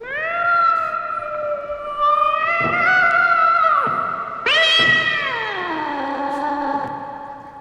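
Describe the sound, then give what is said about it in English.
A cat, Philly Boy Roy, yowls loudly in long, drawn-out wails, one sustained cry running into a second that rises sharply and then slides down in pitch as it fades. “think your cat Philly Boy Roy didn't want me to leave.”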